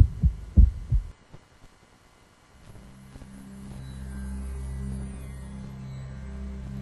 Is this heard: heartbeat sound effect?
yes